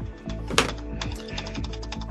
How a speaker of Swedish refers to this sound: Hamra, hamra mjukare ja, på tangenterna.